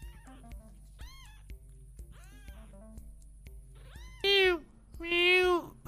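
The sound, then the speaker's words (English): A kitten, being carried around by a monkey, meows repeatedly in high, thin cries, the first few softer and spaced out, followed by two louder, drawn-out meows near the end. “Oh, the monkey's carrying the kitten around.”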